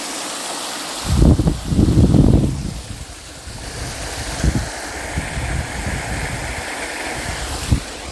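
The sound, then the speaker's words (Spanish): A steady, broad rush of falling water from the Salto Arrechea waterfall roars continuously, heard from a lookout, heavy wind gusts thumping against the microphone early on and again in brief bursts. No one speaks. “Estoy viendo una vista espectacular en el Salto Arrechea.”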